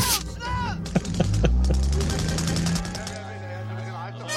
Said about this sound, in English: I love this. And the sound of the gun here. Oh, it's like a cannon.